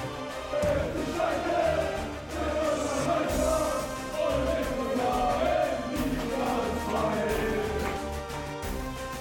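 A huge football stadium crowd at a Schalke 04 2. Bundesliga match in Gelsenkirchen roars and chants in unison, a dense wall of voices sustained loudly and steadily throughout, with rising swells of collective singing.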